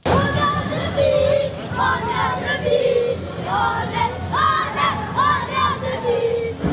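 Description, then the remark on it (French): About 1,000 travelling Annecy (FCNC) football supporters cheer and chant loudly after the final whistle of a Coupe de France match won against Marseille in Marseille, a dense roaring crowd with rising, wavering shouted chants that swell repeatedly throughout, sustained and energetic without pause. “Au coup de sifflet final hier soir, ils ont laissé exploser leur joie.”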